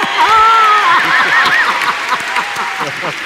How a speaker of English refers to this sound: So, I am very proud of myself to be able to do that, actually, and also to hear your clapping, yes.